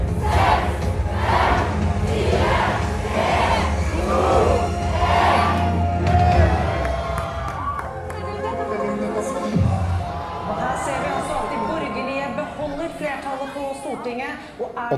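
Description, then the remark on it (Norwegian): A crowd of several hundred people at the Norwegian Labour Party's (Arbeiderpartiet) election-night gathering chants a countdown to the first forecasts at 21:00 in unison, one loud rhythmic shout per number, then the chanting breaks off into a scattered murmur of voices and talk. “Og her er det flere hundre mennesker. Hør på dette.”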